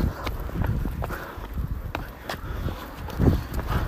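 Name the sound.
running footsteps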